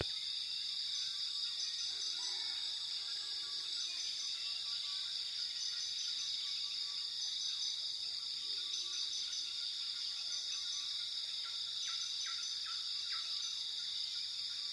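Rainforest ambience for a sleep meditation: a steady, high-pitched drone of insects and crickets fills the air, with scattered soft bird chirps and calls beneath it, continuous and even throughout, with no voices.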